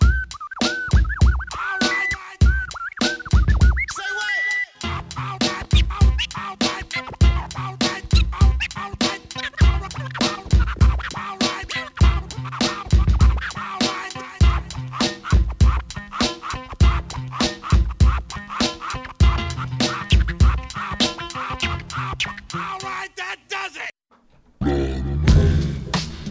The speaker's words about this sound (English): Voilà eh pour le classique bien, bien nerveux. Ouais, bien nerveux, bien dynamique, avec une, bonne, dose de, une bonne dose de scratch.